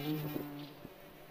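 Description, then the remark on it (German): A steady buzzing of countless bees and bumblebees collecting nectar at purple lavender blossoms in rows of lavender bushes, droning continuously with slightly shifting pitch as the insects hover; no voices. “An den lila Lavendelblüten sammeln unzählige Hummeln und Bienen den Nektar.”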